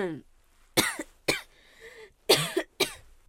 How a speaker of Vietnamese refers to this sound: Mới Tết chưa ăn được cái hạt dưa nào mà đã ho như thế này rồi.